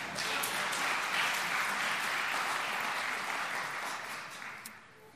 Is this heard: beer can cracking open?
no